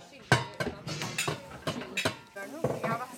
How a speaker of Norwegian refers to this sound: vasker opp pannene som ble brukt til å steike pannekakene på skolekjøkkenet.